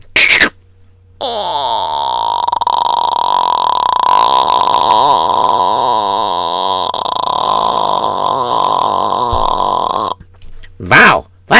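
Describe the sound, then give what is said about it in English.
A voice imitates a creaking door being opened: one long, loud, strained tone lasting about nine seconds, its pitch wavering and wobbling, with short sharp sounds before and after it. “Alright, and now I'm gonna open up the door.”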